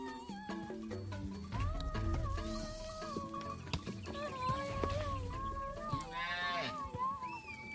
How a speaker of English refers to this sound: The sounds of Maasai women singing as their cattle is called out to graze.